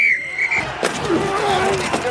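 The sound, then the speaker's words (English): A dense mashup of many sports sounds layered together in an advertisement for Sling: a high sneaker-like squeal, a sharp impact, and a busy crowd-and-play din swirling at once, loud for a couple of seconds. “That's the sound of all the sports you love, all at once.”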